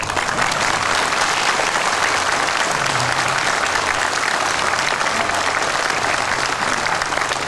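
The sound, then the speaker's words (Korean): A large audience claps steadily for the whole stretch after a speech about the inter-Korean summit declaration and a West Sea peace cooperation special zone, a dense, loud wash of hand claps with no pauses and no voices breaking through. “네, 박수 한번 더 치십시오.”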